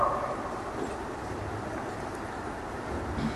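A steady, heavy rumble of a train rolling past, its low clattering roar holding at an even loudness throughout without any voices.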